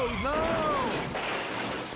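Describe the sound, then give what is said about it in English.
A car crash: a brief high squeal bends downward at the start, buried in a loud, dense roar of crunching noise that holds steady for two seconds. “Crashing sucks.”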